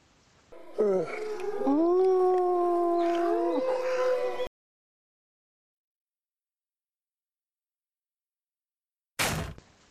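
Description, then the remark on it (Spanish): Five wolves running howl together in a loud, overlapping chorus of rising and falling tones for a few seconds, then cut off into silence before a brief sharp bang near the end. “Detrás de él se veían cinco lobos corriendo hacia su posición.”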